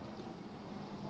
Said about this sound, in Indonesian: Pesawat lewat.